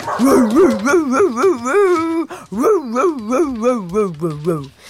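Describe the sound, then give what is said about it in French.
A voice imitates a dog barking loudly toward the street, a rapid, continuous string of pitched yelps and barks rising and falling, forceful, with a short break midway. “Le chien aboie de toutes ses forces en direction de la rue.”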